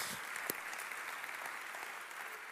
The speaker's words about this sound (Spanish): ¿Cómo ven si ahorita les damos un fuerte aplauso a todos los que nos acompañan por primera vez?